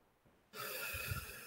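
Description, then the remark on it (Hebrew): A breathy rush of air begins after a brief quiet moment and holds steady as someone slowly draws in a long, deep breath through the mouth, lasting about three seconds, as part of a counted breathing exercise. “אבל לקחת למשל נשימה ולקחת אותה לאט ולספור, כשאני לוקח נשימה שלוקחת בערך שלוש שניות, לספור.”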